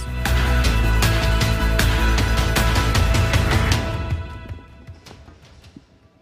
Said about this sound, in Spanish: Así es, fuerte ese aplauso. El mejor regalo del mundo. Jesús.